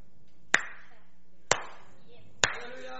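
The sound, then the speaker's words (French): Three sharp, fairly loud hand claps imitating a heartbeat land about a second apart in a slow, steady, heartbeat-like rhythm, each ringing briefly, with no talking. “Et clap.”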